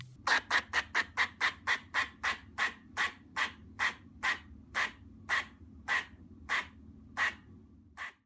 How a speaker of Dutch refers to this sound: het is wel juist geen hond, maar het is een eekhoorn. Een blaffende eekhoorn bestaat blijkbaar